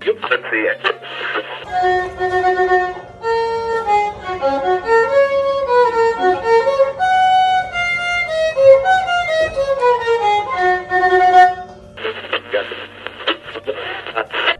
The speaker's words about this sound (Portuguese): ela tocou a abertura aqui do Geo Pizza Nossa Vinha Taça no violino, que ela toca violino.